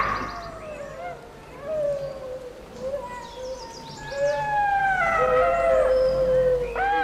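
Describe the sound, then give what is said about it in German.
Several golden jackals howl together, their wavering, high-pitched wails rising and overlapping into a yipping chorus that swells in the second half, against a quiet background. “Ja, das ist ein Goldschakal.”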